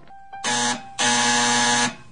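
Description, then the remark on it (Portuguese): A doorbell, rung by the mail carrier, rings with two loud, harsh electric buzzes, a short one followed by a longer, steady one, with no voices. “Ando tão sobressaltada que cada vez que a campainha toca, meu coração acelera.”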